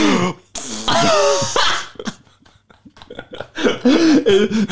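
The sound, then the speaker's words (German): A loud throat-clearing rasp as a person clears their throat while exhaling, followed by a few softer breathy bursts and a louder voiced, laugh-like outburst near the end. “Ich, ich, habe einfach, hab einfach nur so ich geräuspert nebenbei und so. ausgeatmet.”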